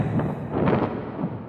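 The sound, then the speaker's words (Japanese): Loud, continuous wind rumbling and buffeting against a microphone, a thick low roar that swells and ebbs across the short stretch without any voices. “風の音がうるさくてすみません”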